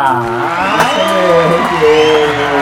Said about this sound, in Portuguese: E para me despedir, porque a vida a gente gosta. Uma salva de palmas pro meu parceiro, ele,